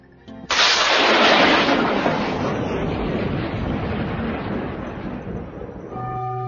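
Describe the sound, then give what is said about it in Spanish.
A sudden, loud clap of thunder breaks in and rolls into a long, heavy rumble that slowly fades, with no voices present. “La frase final, Padre mío en tus manos encomiendo mi espíritu, va seguida de rayos y truenos y grandes cataclismos.”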